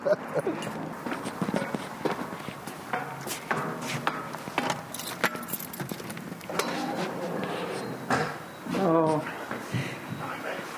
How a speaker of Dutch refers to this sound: Nou, gooi die deur eens open. Ik, dat heeft nog nooit iemand voor mij gedaan, een watertoren openmaken.